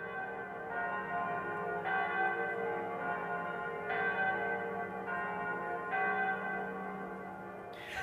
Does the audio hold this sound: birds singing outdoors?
no